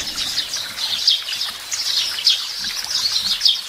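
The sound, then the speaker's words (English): A steady chorus of sparrows chirping from an ambient sparrow sound track played on a smart speaker, with dense overlapping high-pitched tweets filling the whole stretch at a moderate, even loudness, with no voices. “Unlimited sparrow.”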